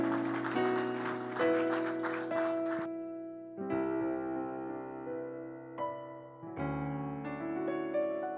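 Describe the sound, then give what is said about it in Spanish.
An audience claps in praise to the Lord after a prayer, for about three seconds over sustained keyboard or organ chords, then the applause fades and the held chords continue alone, shifting through several changes. “Tiene un aplauso de alabanza al Señor.”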